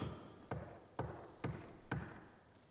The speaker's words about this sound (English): And when I stood there in that pulpit I knocked for dramatic effect. And several people about jumped out of their pew, so I'm warning you in advance.